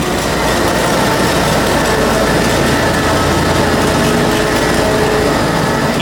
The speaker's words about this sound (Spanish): Y si estáis escuchando esto, es que la Zamboni ya ha arrancado los motores. Ya la tenemos a pleno rendimiento, con las cuchillas bien a punto y vamos a comenzar, ¿no?